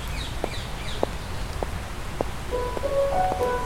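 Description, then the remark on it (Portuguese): A steady low rumble of car traffic fills the background in a garden area by a station not yet fully restored, with faint bird chirps, a few regular soft taps, and brief high whistling tones near the end. “Ouvimos, como a estação aqui ainda não está muito, muito restaurada, ouvimos muito o som dos carros.”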